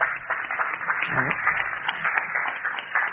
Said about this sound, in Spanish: Oye, vamos a dar un aplauso a ese titán.